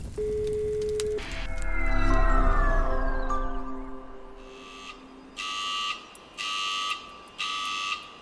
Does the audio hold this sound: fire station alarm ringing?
yes